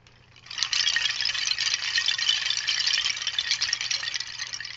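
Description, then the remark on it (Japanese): A hanging wind chime made of wooden tree branches picked up off the ground clatters continuously, a dense, rattling cascade of light knocks that starts abruptly and keeps going at steady loudness, with no talking. “まあ、ちょっと似てますけども、これはね、その辺に落ちてた木の枝ですね。はい、それをまた拾ってきてぶら下げたというこんな感じです。”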